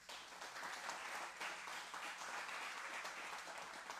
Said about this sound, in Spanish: Un fuerte aplauso al Señor.